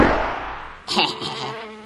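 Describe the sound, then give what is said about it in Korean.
A fly buzzes in a steady, droning hum, briefly interrupted midway by a bright swishing burst before the buzzing carries on, as Ogong transforms into a fly. No one speaks. “사르사르 사르사르 캐치오 날파리로 변신!”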